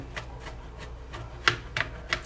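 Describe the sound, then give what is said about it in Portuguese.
A knife chops on a cutting board in a series of crisp, uneven taps, starting soft and growing louder, with three sharper strikes near the end. Nobody speaks. “Então vamos lá, calma aí que eu tô picando aqui”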